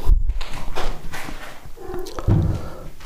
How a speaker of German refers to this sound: So, die Türen sind auf. Die Türen sind auf.